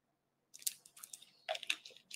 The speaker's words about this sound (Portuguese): Deixa eu tomar uma aguinha aqui que secou.